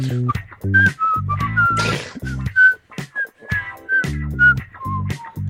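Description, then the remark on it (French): A bright whistled melody carries a lively tune over a steady instrumental accompaniment, the notes sliding and bouncing in quick phrases, clear, with no talking. “Bon, ça laisse euh, place à ….”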